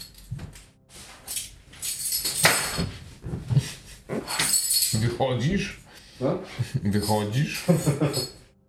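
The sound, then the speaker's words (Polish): Keys jangle and clink in bright metallic bursts, rattling on and off throughout while a person talks over them. “Kluczy nie chciałem, żeby...”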